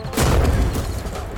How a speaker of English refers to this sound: Let's blow some shit up. This explosion is dedicated to Dr. Kevin Bird. May he rest in peace.